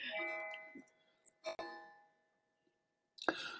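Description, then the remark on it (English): A clock bell strikes the hour of twelve, chiming slowly, with about three chimes heard roughly a second and a half apart, each tone ringing out and fading. The chimes sound faint, with short knocks and rustles in between. “I'll let my clock go. It's going to the bell is going to ring twelve times.”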